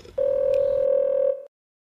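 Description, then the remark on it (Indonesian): A steady, loud telephone dial tone holds at one pitch for just over a second, then cuts off into silence, with faint background noise underneath. “yuk kita telepon”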